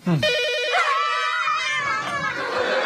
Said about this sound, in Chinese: 不有一电话吗？把你们吓成这样！